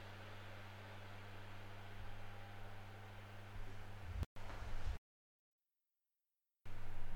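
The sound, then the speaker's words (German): A loud, steady whir from an overheating laptop fan, with a low hum beneath a broad hiss, cutting out abruptly twice, including a long stretch of silence before it resumes. No voices are heard. “Und jetzt habe ich gerade das Gefühl, dass jeden Moment mein Laptop explodiert.”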